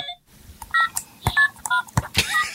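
A one-year-old girl's toy cell phone's button tones: a quick, irregular string of short electronic beeps and chirpy melodic tones, punctuated by plastic clicks, with no one talking.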